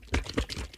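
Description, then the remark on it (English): A few quick, thick sloshes of buttermilk inside a carton, with soft crinkling of the container, moderately loud, with no talking. “Okay, so we have our buttermilk that sounds like this.”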